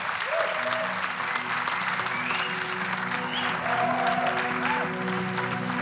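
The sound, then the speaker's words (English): A large audience applauds Joe Talbot steadily for about six seconds, a dense, even wash of clapping with a few whoops and voices threaded through it. “A big, a big round of applause for Joe Talbot.”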